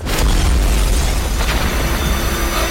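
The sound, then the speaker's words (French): A loud explosion of a character's office in the TV series Rabbit Hall bursts with a deep rumbling boom that keeps roaring and crackling with debris noise for a few seconds, no voices present. “Voilà, ça c'est le bruit de son bureau qui explose.”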